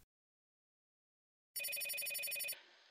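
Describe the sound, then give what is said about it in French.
After a stretch of silence, a telephone bell rings in one loud burst of rapid metallic trilling, about a second long, then cuts off and leaves a brief fading hiss. “Et puis un jour, à 25 ans, Déborah reçoit un coup de téléphone.”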